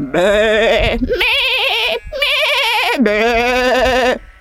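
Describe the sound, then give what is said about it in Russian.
A voice imitates sheep bleating, four loud, wavering bleats in quick succession, each held about a second with a quivering pitch, with no other sound around them. “И к этому добавляются, да, и птицы, если они прорываются сквозь вот это блеяние, и действительно трактор, и свист ветра, и шмыгнет твоего собственного носа, клюпанье и чавканье и ботинок.”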